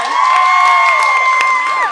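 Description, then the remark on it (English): An audience at Dixon Place cheers loudly for the performers, with a long, steady high-pitched whoop or whistle ringing over scattered clapping, then dipping at the end. “One last uh, round of applause for these fantastic people.”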